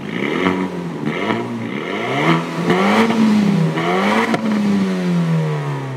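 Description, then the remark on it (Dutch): A lightweight sports car engine idles with a throaty rumble at the Geneva Motor Show, then revs up in several quick rising-and-falling blips before settling back to a steady idle. Loud, with no talking. “En dan hoor je als je ermee rijdt dit.”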